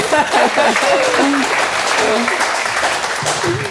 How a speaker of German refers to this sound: Das ist ein Applaus wert, würde ich denken.